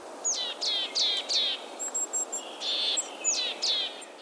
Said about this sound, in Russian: Дело в том, что у птиц есть такая сигнальная система, они не только поют, но и издают разные другие звуки. Честно говоря, позывка Пухляка, наверное, не самая мелодичная на свете.